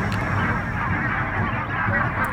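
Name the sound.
wild geese honking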